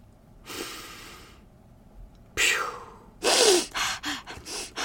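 Forceful breathing: a couple of long hissing breaths, then a run of quick, sharp nasal exhalations pumping in rapid rhythm, like a breath-of-fire exercise. No talking.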